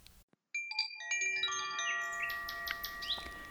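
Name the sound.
nightingales singing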